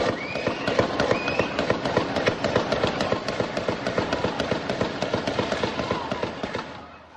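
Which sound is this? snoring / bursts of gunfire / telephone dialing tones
bursts of gunfire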